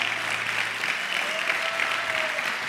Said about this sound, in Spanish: Vamos a darle un aplauso fuerte al Señor si tú lo crees.